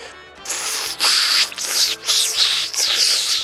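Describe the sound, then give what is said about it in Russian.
A person imitates radio static with their mouth, as interference on a call line: a hissy, crackling noise of uneven bursts with a few brief dips, fairly loud, with no clear speech. “я слышу, как ты делаешь помехи ртом.”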